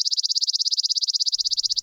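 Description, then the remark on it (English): A person makes a rapid, high-pitched tongue trill imitating a bird's trill call, evenly spaced choppy pulses, about a dozen and a half per second, steady for nearly two seconds with no talking. “Kind of choppy da da da da da da da da quality to it.”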